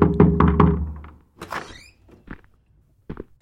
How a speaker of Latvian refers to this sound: Nebija viņi vēl paguvuši iebāzt zirņus mutē, kad pie durvīm kāds klauvēja.